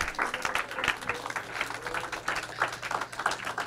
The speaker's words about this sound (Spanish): Dele un aplauso más fuerte al Señor.